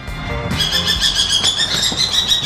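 A Eurasian eagle-owl named Bubo Senior, whose right wing droops, at a volunteer care station for injured birds of prey in Ebelsberg, gives a harsh, high-pitched screeching call, starting abruptly after a brief pause and running on steadily to the end with no one talking.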